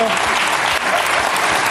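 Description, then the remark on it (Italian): A crowd claps steadily, a dense, even wash of many hands sustained throughout with a brief dip partway, with faint voices mixed underneath. “Oggi non applaudite nessuno. Eh? Si può, lo potete fare.”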